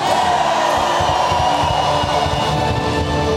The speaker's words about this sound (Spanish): En momentos de abundancia, en momentos difíciles, dale un grito de victoria ya.